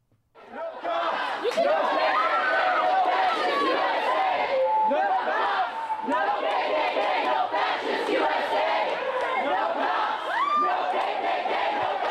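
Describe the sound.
A large crowd shouts and chants continuously as a statue is taken down, many voices yelling together in a loud, dense roar that stays steady throughout with overlapping cries rising above the mass.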